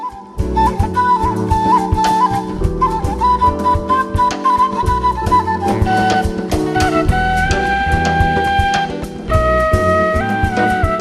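An Armenian duduk plays a slow, mournful melody of long held notes that bend and glide between pitches, carried over a steady, full accompaniment with no voices.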